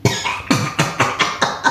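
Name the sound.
cough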